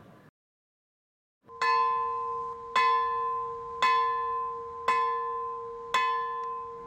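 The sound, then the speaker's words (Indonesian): A church bell at a heritage-listed church tolls five times at a slow, steady pace, signalling the start of a worship service, each strike ringing out with a bright metallic clang and a long humming decay that overlaps the next. “Lonceng berbunyi. Pertanda ibadah dimulai.”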